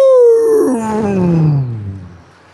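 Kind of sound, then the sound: animal, tiger roar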